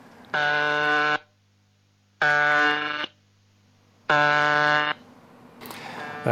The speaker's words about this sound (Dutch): zit dan ook de, de befaamde buzzer, die ook al jarenlang in de lucht is. Sinds die begin jaren 70 is die voor het eerst al gehoord. Eh, dit, is de buzzer. Dus dat, eh, het geluid dat ze dus 24 uur per dag maken als ze geen, eh, geen tekst uitzenden.